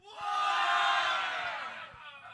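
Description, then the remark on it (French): An auction audience yells back in unison at the auctioneer, one loud, sustained burst of mixed shouting voices that swells quickly and then slowly tapers off over about two seconds. “Faut que vous reconnaissiez mon ton puis que vous gueuliez, là.”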